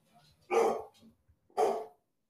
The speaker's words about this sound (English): Is that is that your dog?